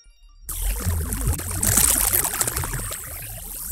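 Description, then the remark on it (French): Sonified plasma waves recorded by NASA in space between Earth and the Sun: a steady rushing, watery hiss that cuts in abruptly after a brief silence, with crackling textures and a brighter swell midway, heard alone and fairly loud. “Normal, il s'agit du son qui vient juste d'être enregistré entre la Terre et le Soleil.”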